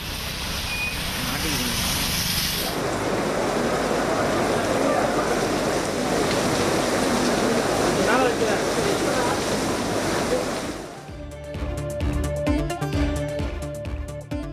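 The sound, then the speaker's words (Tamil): A steady, dense roar of heavy rain pours down in Chennai, India, flooding roads with standing water, for about ten seconds, loud and continuous, before cutting out to a brief stretch of music. “சென்னையில் பல்வேறு பகுதிகளில் வெளுத்து வாங்கிய கனமழை சாலைகளில் தண்ணீர் தேக்கம் போக்குவரத்து பாதிப்பால் வாகன ஓட்டிகள் சிரமம்”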